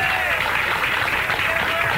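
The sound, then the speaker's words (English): Steady studio audience applause at the Summit Restaurant on a Thursday night, greeting Larry Connor of KMOV Television News, St. Louis: a dense, loud wash of clapping with cheering voices mixed in, holding at an even level for the whole two seconds without a break. “Let's give it up on this Thursday wow. night for Mr. Larry wow. Connor.”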